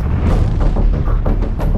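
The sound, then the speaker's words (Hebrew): A massive explosion in Gaza roars, a deep, loud boom that rumbles continuously with several rolling blasts layered through it and no voices over it; the blast throws soldiers and scatters metal fragments over hundreds of meters. “וברגע שהוא התכוון לשלוח את דיאבלו, נשמע פיצוץ אה, אדיר.”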